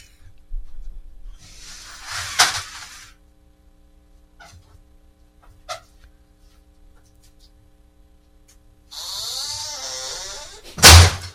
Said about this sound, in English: You know how you open the screen door and you let, however, you just let